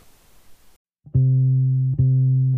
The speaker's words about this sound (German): So, dann hören wir uns mal die Single an.